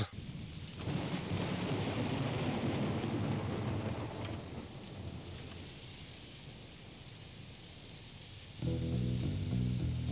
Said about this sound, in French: On passe tout de suite euh, à l'orage